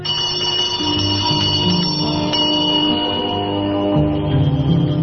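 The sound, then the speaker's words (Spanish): A small handbell rings continuously with a bright, shimmering metallic tone, holding an even level for several seconds with no voices. It is rung at night by a woman in mourning clothes as she walks the cobbled streets of a village, reciting a prayer for the dead. “Cuando cae la noche por sus calles empedradas, surge la figura enlutada de la moza de ánimas, que recorre el pueblo recitando una oración por los difuntos y las ánimas del purgatorio mientras hace sonar una pequeña campanilla.”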